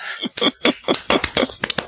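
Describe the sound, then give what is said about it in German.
Audience hand clapping, a quick series of about eight sharp claps in a loose, steady rhythm, moderately loud, with no one speaking. “Ich wollte sagen, ihr könnt jetzt klatschen.”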